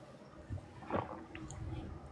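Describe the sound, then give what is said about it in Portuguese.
Quiet wet gulping as someone drinks and swallows water, with one fuller swallow standing out in the middle amid soft liquid and mouth sounds. “Então, se eu engolir, a água agora faz parte de mim.”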